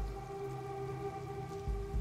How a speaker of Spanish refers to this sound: La lluvia se hacía cada vez más intensa, típico de estas localidades al sur de Chile, retrasando aún más mi regreso a la casa familiar